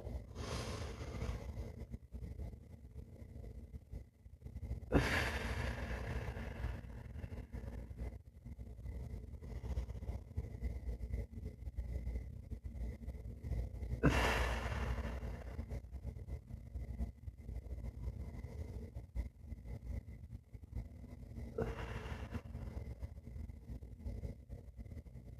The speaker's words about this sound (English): Uh, four, seven, eight, breathing. Breathe in for a count of four, hold it for a count of seven, breathe out for a count of eight.